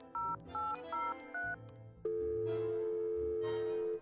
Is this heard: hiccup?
no